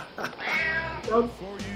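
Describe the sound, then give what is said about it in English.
Suki, the studio cat at News Talk 610 CKTB, lets out a drawn-out, raspy, strained meow followed by a shorter, hoarse second cry, with no other sounds around it. “I was like Suki's got a smoker's cough.”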